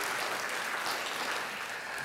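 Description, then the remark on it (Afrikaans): A crowd claps steadily for the band, a dense continuous wash of many hands applauding at moderate volume, sustained without pause and with no voices. “Ag gee vir die orkes 'n lekker hande klap toe.”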